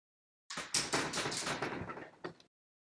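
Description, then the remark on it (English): A rapid flurry of knocks on a door, fairly loud, runs for about two seconds and ends with one last separate knock. Nobody speaks. “knocking at the door again.”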